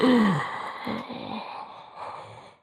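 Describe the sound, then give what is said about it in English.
A deep, breathy inhale right up against the microphone, loud and airy, opening with a brief voiced catch and then drawn out for about two seconds. No one speaks. “I feel so awkward like breathing into the mic because like I want to take here.”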